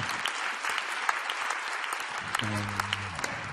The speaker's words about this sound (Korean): 오늘 이 밤에도 임하신 살아계신 하나님께 우리 감사의 박수 먼저 올려드리겠습니다.